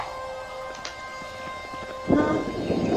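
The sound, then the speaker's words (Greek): A steady low drone hangs in the background, then about two seconds in a deep, distant rumble of explosions and thunder cracks rolls in and keeps grumbling, louder than before, to the end, with no storm in sight. “Εκείνη τη στιγμή ακούτε κάποιες εκρήξεις από μακριά.”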